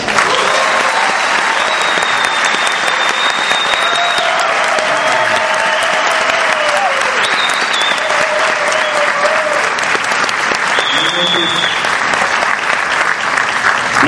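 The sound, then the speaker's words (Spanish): Strong, sustained applause from an audience welcoming a network marketing businessman, filling the whole stretch at a steady, loud level, with dense clapping and a few faint whoops and tones rising above the crowd. “Y para comenzar de una vez, eh, queremos que reciban con un fuerte aplauso a este gran empresario de la industria del network marketing,”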